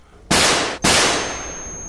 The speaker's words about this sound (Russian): И сам не понимая, что делаю, от страха и шока, наверное, нажал сразу на два спусковых крючка. Прогремел выстрел.